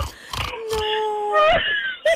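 A car gives off high, whining squeals that sound a bit like a pig, a few drawn-out tonal cries with gliding pitch, interrupted by short breathy bursts, clear.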